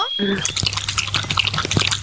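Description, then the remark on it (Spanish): A dog lapping water, a quick steady run of wet slurping splashes that repeats for a couple of seconds over a low background hum, right after a brief tonal chime. “Es un perro tomando agua.”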